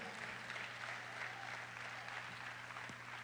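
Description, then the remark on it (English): An audience claps hands for Jesus together in a steady, dense wash of clapping that holds at an even level for a few seconds, with no voices breaking through. “Come on, clap hands for Jesus.”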